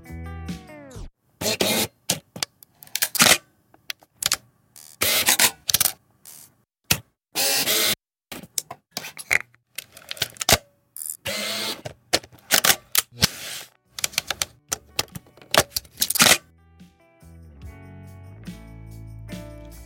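Rapid mechanical clicks and clacks of a reflex camera shutter, fired in quick irregular bursts, close and crisp, with a brief whirring tail near the end and no voices.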